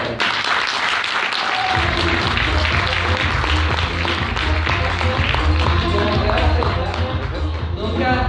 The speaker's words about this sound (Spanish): ¿Quién está de acuerdo con lo que acaba de escuchar? Oh. Un fuerte aplauso por